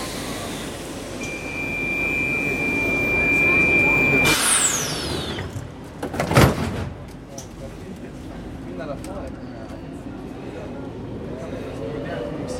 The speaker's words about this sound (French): ici, on est dans un métro. Si on retire le signal de la porte